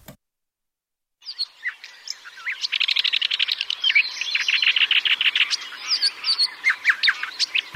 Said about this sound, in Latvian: Dziedātāja putns nedaudz lielāks par zvirbuli, tā ir brūnā čakste, kas Latvijā ir parasta un izplatīta līgzdotāja. Visā Eiropā brūnā čakste ir īpaši aizsargājama suga, un Lielbritānijā šis putns iespējams jau ir izzudis.